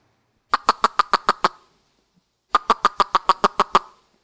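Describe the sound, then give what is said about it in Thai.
A human voice imitates a tokay gecko's call with the mouth: two quick runs of about eight sharp, evenly spaced chirps, separated by a short pause, fairly loud with no talking. “มีเสียงเรียนแบบธรรมชาติเนาะอย่างเช่นเสียงนกนะครับนะครับหรือว่าเสียงอื่นๆนะอย่างอย่างเสียงสัตว์อย่างเงี้ยก็สามารถทำได้อย่างเช่น เสียงตุ๊กแก นะครับ”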